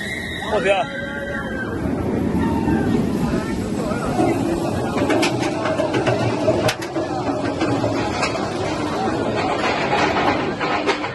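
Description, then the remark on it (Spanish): The Superman roller coaster at Parque Warner roars past with a steady, loud mechanical rumble as it suddenly accelerates at the start of the ride, while riders let out high-pitched screams near the start, blending into a busy wash of crowd noise. “Aquí la inercia ya se está rompiendo, por eso hay, gritos, ya no hay, inercia, de repente hay una aceleración cuando empieza una atracción.”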